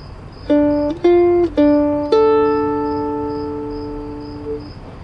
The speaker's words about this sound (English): The whole thing is played beginning to end on one mandolin, and then again with a second one, offset by one bar, essentially after these four notes.